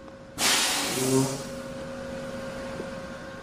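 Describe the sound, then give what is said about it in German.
A rack railway train of the Bavarian Zugspitzbahn pulling into its station in the early morning: a sudden loud hiss of air that fades over about a second, followed by a steady low electric hum with faint tonal whine. “Auf dem Gleis fährt der Zug ein.”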